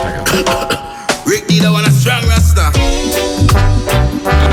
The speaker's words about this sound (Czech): jo tupu reggae, který jsem si tady připravil a rovnou to pustím.